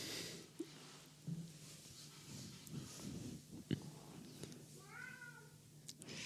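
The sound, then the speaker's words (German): An agitated cat gives a single drawn-out meow near the end, preceded by scattered faint scrapes and scratches of its paws at a door. Everything is quiet, with no one speaking. “Ich weiß nicht, ob man das gerade gehört hat, aber er hat sogar an der Tür gescharrt mit den Pfoten.”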